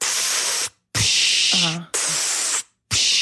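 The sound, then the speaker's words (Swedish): A voice imitates a breathing machine with three long, loud hissing exhales, each cut off by a brief silence, and a faint voiced tone slips in during the middle hiss. “eller det en andningsmaskin låter, det vet jag inte.”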